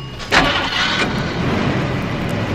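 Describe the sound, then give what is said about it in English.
A car engine, just worked on with a socket wrench, cranks and catches with a sharp burst, then settles into a steady, rumbling idle that continues evenly to the end. “Start her up.”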